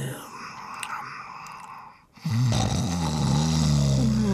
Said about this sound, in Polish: no do cholery, przestań chrapać, dopiero zasnęłam.